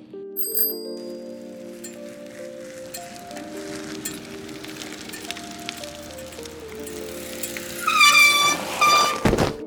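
A bicycle rattles along with bell-like ringing tones, then near the end a louder, clattering burst of metallic ringing suggests the bike tipping over and falling. No one speaks.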